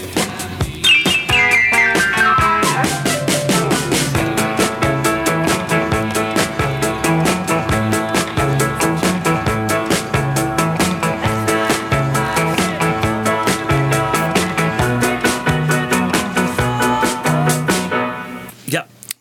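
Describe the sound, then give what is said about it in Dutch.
Isolated studio recording-session tracks of piano (track 8) and drums (track 3) play together in a dry mix, with a steady, driving beat under sustained chords, loud throughout and cutting off abruptly near the end. “De piano op spoor 8 en je hoort de drums op spoor 3.”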